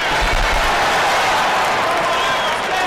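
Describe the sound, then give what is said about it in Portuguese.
A round of applause: dense, steady clapping from many hands that holds at an even, fairly loud level for about three seconds, with a brief low thump near the start. “Merece até uma salva de palmas.”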